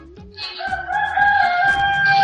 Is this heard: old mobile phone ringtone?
no